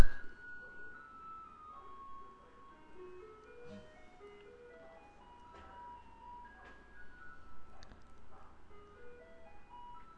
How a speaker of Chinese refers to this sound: 其实一直直到今天呐，就是垃圾车的声音也越来越大声了。我们可以先听一下